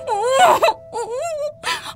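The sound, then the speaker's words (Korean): A gagged woman, bound with tape and lying on a bathroom floor, gives a muffled, strained moaning scream, rising and wavering in three bursts with brief pauses between them. “아 소리 지르지 마.”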